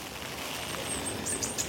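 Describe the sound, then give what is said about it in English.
Heavy rain pours down on an allotment in a steady, dense hiss that never lets up, with a few faint, high bird-like chirps flickering over it toward the end. “It's absolutely pouring.”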